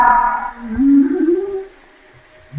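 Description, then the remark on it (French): A humpback whale call answering bassoon sounds: a drawn-out, moaning tone that swells and bends upward in pitch before fading away, heard alone with no voices. “La, la baleine, ça c'est la baleine, la réponse.”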